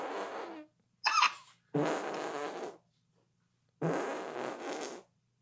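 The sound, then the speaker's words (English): Four squelchy armpit-fart blasts with pauses between them, one short and three longer and buzzier, made by hand against skin, with no talking. “By the way, can you armpit fart?”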